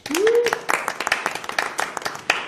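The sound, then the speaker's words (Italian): An audience applauds on the Radio Varieté show, with dense, steady clapping that holds fairly loud for the whole stretch, opening with a short rising whoop or cheer over the claps. “Regno della Neve, ladies and gentlemen, facciamo un bellissimo applauso.”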